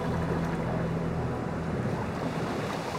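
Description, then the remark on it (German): A ferryman's barge glides over reef banks in shallow water and slides bow-first onto a dark sand beach, a steady wash of surf and splashing over a low droning rumble, continuous, with light wind noise and no voices. “Der Fährmann verstand sein Handwerk, setzte geschmeidig über die Riffbänke im seichten Wasser hinweg und ließ die Barke mit dem Bug voran in den Sand gleiten.”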